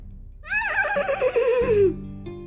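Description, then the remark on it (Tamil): A horse neighs loudly, one long quavering whinny that wavers and slides down in pitch over about a second and a half, with a low rumble underneath: Kari, the black horse of the chieftain Kari, setting out to help the Chera king. “அப்படின்னு காரியோட குதிரை சேர மன்னனுக்கு உதவுறதுக்கு புறப்பட்டுருச்சு காரியோட குதிரையோட பேரும் காரி தான் கருப்பு நிறத்தில் இருக்கும்”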